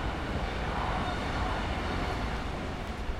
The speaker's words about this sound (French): Je suis ici à Noisy-le-Sec, en Seine-Saint-Denis. C'est le deuxième parc relais que je visite. On est mercredi soir, l'heure de pointe. Je vois les trains se suivre les uns après les autres